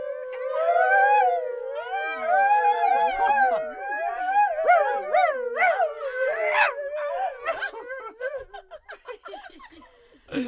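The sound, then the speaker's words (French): A person vocally imitates a poodle, with high, wavering yips, whines and whimpers over about ten seconds, fairly loud, fading into softer breathy whimpers at the end. “fais vachement de le caniche”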